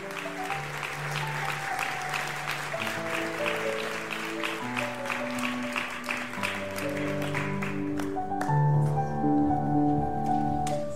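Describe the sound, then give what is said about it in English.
An audience applauds a visiting U.S. missions minister with steady, dense clapping that carries on throughout, while sustained keyboard chords play underneath and shift between notes. “Can we clap it up right now for our U.S. missions man of God who's here?”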